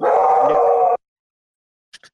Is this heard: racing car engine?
no